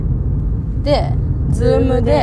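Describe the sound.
A steady, low rumble of a car interior fills the whole recording, a constant droning hum underneath people talking, recorded on a mobile phone's recorder while on a phone call.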